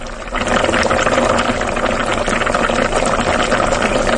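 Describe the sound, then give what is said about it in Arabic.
A steady, dense bubbling and crackling hiss of oil boiling hard holds at an even loudness for about four seconds after a brief quieter start, with no voices. “صوت زيت مغلي زيت مغلي”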